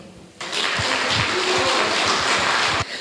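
A crowd breaks into steady applause to thank the heads of Crimean manufacturing enterprises, many hands clapping in a dense, sustained burst for a few seconds before it cuts off abruptly.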